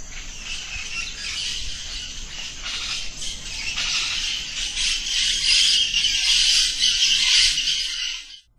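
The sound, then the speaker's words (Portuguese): A barn owl's harsh, hissing screech drawn out almost continuously for several seconds, raspy and fairly loud, with no voices around it. “Para os ribeirinhos, o canto da rasga-mortalha, essa bela espécie de coruja, arrepia quem ouve, remete ao ato de enterrar alguém com a mortalha.”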